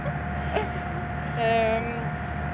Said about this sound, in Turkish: Ee, şu anda arkadan inanılmaz derecede kötü motor sesi geliyor olabilir. Çünkü vapurdayız.